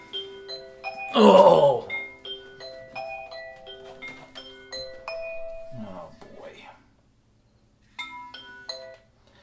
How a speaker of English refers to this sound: That's just my phone alarm going off because usually I wake up at 6 a.m. for my work from home job like Carl.